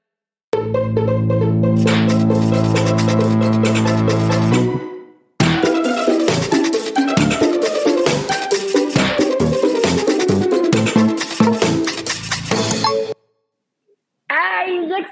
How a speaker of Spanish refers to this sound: extrañaba esta bellísima cortinilla, qué bonito, los perritos. La cortinilla de los perritos es lo máximo, lo máximo.